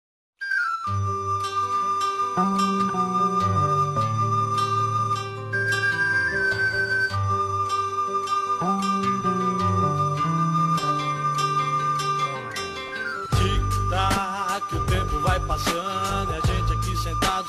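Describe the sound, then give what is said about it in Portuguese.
An instrumental intro to a song made by members of Narcotics Anonymous plays loud and full, with a sustained high melody line over stepping bass notes, shifting into a busier, more rhythmic section near the end. No voices are heard. “Não, não, é novo, a música não é nova, mas faz pouco tempo que eu recebi esse som.”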